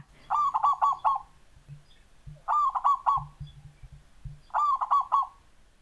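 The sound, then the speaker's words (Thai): A zebra dove coos in three repeated phrases, each a quick run of soft, rolling notes, spaced about two seconds apart and clear against a quiet background with low rumbling. “และนี่คือเสียงนกเขาชวาค่ะ”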